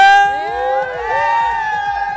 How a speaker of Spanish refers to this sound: Continuamos con más, estamos nada más y nada menos que desde Morelos y Emilio Carranza, el grito de la gente.